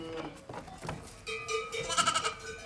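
A flock of ewes wearing neck bells (sonailles), the bells clanking intermittently because not all the ewes are moving, some ruminating and some lying down, as a few animals bleat, the jangling growing busier toward the end.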